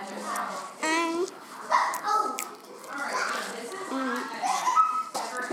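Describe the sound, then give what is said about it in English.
A busy crowd of about 50 children chatters and plays all around, with about 20 mothers present, overlapping young voices rising and falling continuously, with a few higher excited calls cutting through the lively background noise. “so that's the noise you're hearing all around us”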